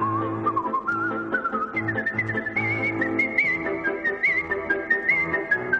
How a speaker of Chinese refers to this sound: 他最高纪录一分钟可以吹三百个音符，成为世界上第一位把口哨吹进国家音乐厅表演的人。